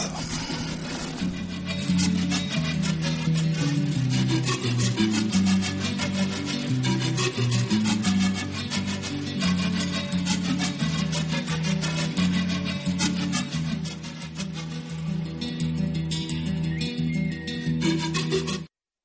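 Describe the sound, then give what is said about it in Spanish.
Traditional Mayan music plays throughout, a dense, steady instrumental piece with sustained melodic tones over a low, droning bed, loud, with no voices. “Vamos a escuchar un tema musical maya.”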